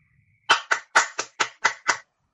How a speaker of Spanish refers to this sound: ¿Ah? ¿Quién aplaude?